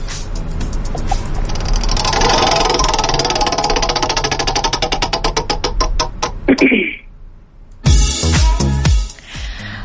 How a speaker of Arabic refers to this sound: يلا نشوف دولاب الحظ ايش الحرف اللي راح يعطيك اياه